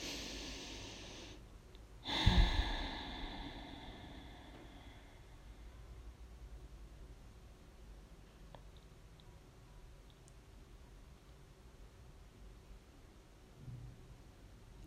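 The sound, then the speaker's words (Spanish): A single deep breath rushes through at the start during a guided deep-breathing exercise, then fades into a long, hushed stretch of soft airy noise with no talking. “Lo sentimos, seguimos respirando profundamente.”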